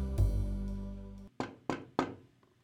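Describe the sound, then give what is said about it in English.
Three firm knocks on a door in a quick, even rhythm, each with a short ringing decay, following a low rumbling hum that cuts off just before the first knock. “I just sat behind my desk with a cup of joe when I heard a knock at the door.”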